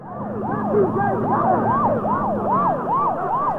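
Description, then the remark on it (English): An ambulance siren wails loudly as the ambulance drives between marching guardsmen and a running man, its pitch sweeping up and down in quick repeated cycles over a low engine rumble, with no voices. “A man wearing a suit carrying a briefcase runs pointing as an ambulance drives between them.”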